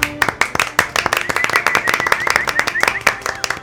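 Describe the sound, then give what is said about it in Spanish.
A group applauding a doctor who received a national award for the promotion and defense of human rights, with dense, irregular hand claps sharp and crisp throughout, plus a few whoops or cheers rising faintly in the mix. Steady and moderately loud for the whole stretch. “Este, este aplauso es, auténtico de toda la tribu para usted, doctor.”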